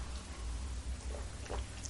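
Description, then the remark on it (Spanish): A couple of quiet, wet slurps as someone sips very bitter hot coffee, two short bursts over a steady low hum, with no one speaking. “el café tiene que estar bien, bien amargo para despertarse informativamente como este que tengo delante de mí y del que me voy a dar un sorbito ahora mismo.”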